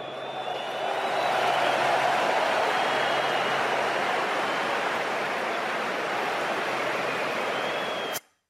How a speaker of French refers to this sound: Et je vous propose d'applaudir toutes les équipes ensemble.